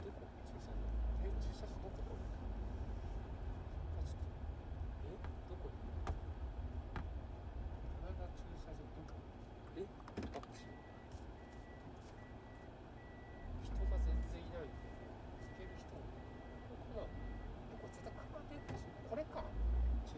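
Steady low rumble and road noise from inside a car driving in Niigata, Japan, on the way to see rice terraces, continuous throughout, with a soft repeating electronic beep joining partway through and a few thumps from bumps.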